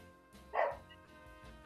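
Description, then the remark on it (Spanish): A small dog named Winona lets out two sharp, high-pitched barks, the first clear, the second cut off at the end, with no talking. “El, perrito, la Winona.”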